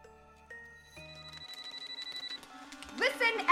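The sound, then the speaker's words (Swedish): A telephone rings for the fourth time with a rapid, trilling bell that pulses steadily for a couple of seconds over faint background tones, then a loud voice abruptly cuts in near the end. “Så telefonen ringer en fjärde gång”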